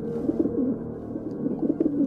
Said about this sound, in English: And then, tired of reading, one might rise and see for oneself the house all empty, the doors standing open, only the wood pigeons bubbling with content and the hum of the threshing machine sounding from the farm.